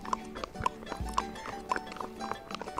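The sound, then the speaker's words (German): Horse hooves clacking on an asphalt path where only tractors are allowed, in a steady, rhythmic clip-clop, moderately loud, with a few sharp bright knocks standing out over the even walking beat. “Und die Hufe klackern hier auf dem Asphalt.”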